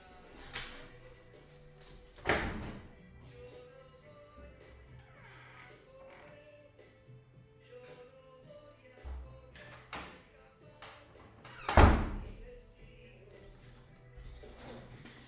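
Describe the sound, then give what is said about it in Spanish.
A can being fetched from a freezer: a few sharp clunks of a door and handling, one early, another soon after, and the loudest near the end, with quiet rummaging and low hum between. “Pará, es verdad, voy a sacar la lata del freezer, un segundo.”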